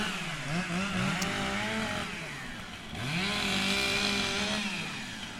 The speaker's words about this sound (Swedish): Ja, där är vi inne på mässområdet då och här kör de STIL har en monter med STIL Timbersport det är alltså eh, två tjejer som tävlar i kapning med motorsåg här nu.